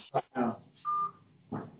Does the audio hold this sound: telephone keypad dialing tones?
yes